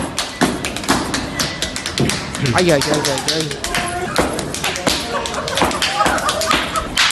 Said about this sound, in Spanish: en general en verano, tocan las palmas, ¿vale? Pero atención cómo las tocan, no las tocan cada uno las suyas. Se dan bofetadas, así ah, suenan. ¿Esto, que vamos a oír son bofetadas en la cara? Entre a ellos mismos y al otro.